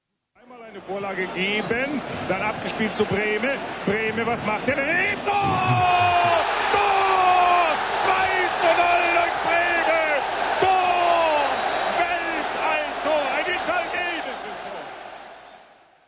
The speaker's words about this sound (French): Vous avez certainement deviné qu'il s'agissait de football, d'un match de football. Vous savez qu'un match se déroule dans un stade, et que le brouhaha entendu signifiait certainement but, un but marqué sous les ovations des spectateurs.